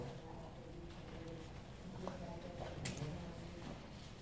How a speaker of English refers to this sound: There you go. I hear the pages turning. I want you to look at the Bible. There we go.